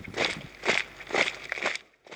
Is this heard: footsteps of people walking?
yes